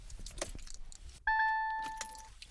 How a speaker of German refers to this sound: Und das ist wie gesagt das Schöne, man hört einfach nichts. Das war das Startgeräusch, der Motor läuft.